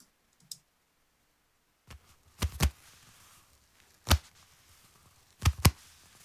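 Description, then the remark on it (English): Hands slap against knees as the beat of a song in a loose percussive pattern: quick doubled smacks, then a single hit, then another pair, with a couple of faint taps early on and near-silence between. “I really think it was just using my hands, hitting my knees, something like that.”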